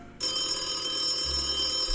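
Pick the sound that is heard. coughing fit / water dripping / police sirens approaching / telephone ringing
telephone ringing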